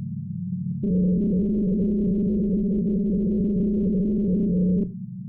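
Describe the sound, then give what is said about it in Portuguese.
Antarctic ice captured by seismic sensors: a deep, warbling hum swells in abruptly and holds steady for about four seconds, layered with eerie tonal overtones, then drops back to a low rumble. “O som que você está ouvindo ao fundo aqui foi captado por sensores de abalos sísmicos na Antártica.”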